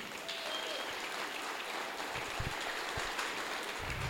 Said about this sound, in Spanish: Si ese aplauso fue para mí, está bien. Si fue para el Señor, por favor, dáselo fuerte.